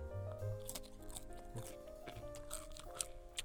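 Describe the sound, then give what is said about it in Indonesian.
Crisp crunching of homemade fried potato chips, made from sliced, salted potatoes, a rapid series of chewing crunches and bites spread across the few seconds, with a low steady hum underneath. “sambil gua ngepodcast sambil makan chips ya tadi gua ngegoreng kentang”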